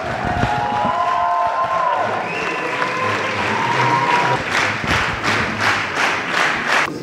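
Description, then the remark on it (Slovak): A crowd of Zuzana Čaputová's supporters applauds steadily after her briefing, dense clapping with a few cheers and whistles, growing into bursts of stronger rhythmic clapping toward the end. No one speaks over it. “Zuzana Čaputová po svojom briefingu zožala veľký potlesk medzi svojimi podporovateľmi.”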